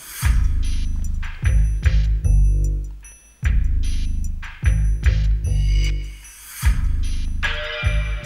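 Dramatic film-score music plays loudly on its own, with heavy low chords struck in repeated rhythmic bursts and bright brassy accents layered above, building tension without any voices.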